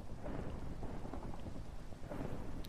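Steady rain pours down while a low, continuous thunder rumble rolls underneath, dense and enveloping with no pauses and no voices.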